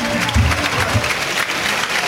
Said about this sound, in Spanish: Saluda la ovación que le otorga el público de Roquetas.